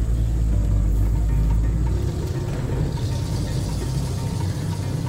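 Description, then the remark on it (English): A heavy, steady engine rumble from inside an antique truck crawling down Highway 68, loud and continuous with low droning tones, the deep hum easing slightly after a couple of seconds while road noise hisses underneath. “As we crawl down Highway 68 in the antique truck”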